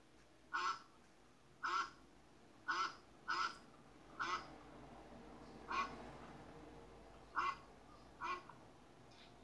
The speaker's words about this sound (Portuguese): isso aí! É o pato!